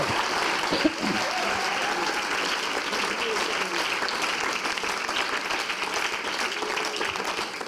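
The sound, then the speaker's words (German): Steady audience applause fills the whole stretch, a dense, even wash of many hands clapping at a constant loudness, with a brief louder clap near the start and no clear talking. “Lass uns ihm einen Applaus geben.”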